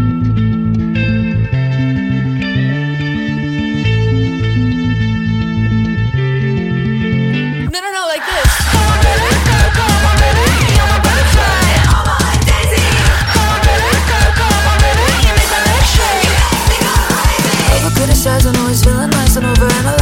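A pop song plays loudly: a steady synth-and-bass intro for several seconds, then a sudden swell into a full, dense arrangement with driving beat and sung vocals.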